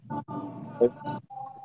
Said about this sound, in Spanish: Oye, ese es un perro, ese, es un perro. Ese es un perrito